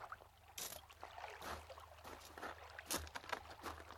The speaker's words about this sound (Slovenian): Čovn je sam zavil k bregu. A kje je kdo, ki bi me rešil iz njega?